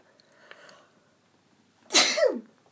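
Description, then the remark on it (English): A single loud sneeze bursts out after a quiet stretch with a brief intake of breath, sharp and explosive before trailing off quickly. “I'm sorry, I need to sneeze.”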